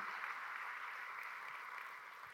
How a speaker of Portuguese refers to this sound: Amém? Pode aplaudir o Senhor, é.